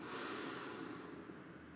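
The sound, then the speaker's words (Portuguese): A deep, steady inhale drawn through the nose during a guided breathing exercise, to a count of four, continuous for a couple of seconds, with a breathy, airy hiss and no talking. “Último ciclo, inala até 4.”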